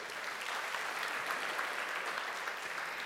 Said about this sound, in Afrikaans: Dankie orkes. Geef vir die orkes 'n lekker hande klap toe.